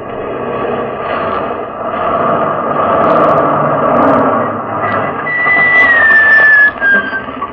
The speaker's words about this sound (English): I gave the sergeant the order to swerve the truck across the road, blocking it.